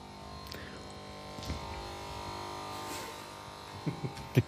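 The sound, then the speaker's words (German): A steady electrical hum drones throughout from the transformer of an electric furnace at a glassworks museum, with a few faint knocks and thumps near the end; no one speaks. “Das ist der Trafo von unserem Elektroofen.”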